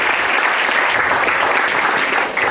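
Steady, dense applause from a large audience, loud and continuous with many hands clapping at once, no voices standing out.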